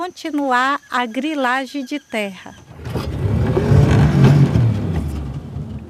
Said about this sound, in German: Mit dem Motorboot geht es über den Rio Jaci Paraná. Träge und glatt wie ein Spiegel fließt er dahin.